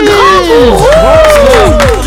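Loud crowd applause mixed with cheering, rising and falling voices whooping over a steady wash of clapping for about two seconds.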